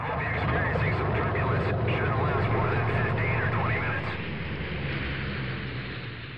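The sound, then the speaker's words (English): A loud, steady roar of an airplane in flight fills the whole stretch, dipping slightly toward the end, with indistinct muffled voices blending into the engine drone. “Who is flying this plane?”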